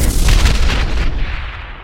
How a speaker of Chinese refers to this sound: 整个加油站都爆炸了，这个爆炸的冲力非同小可啊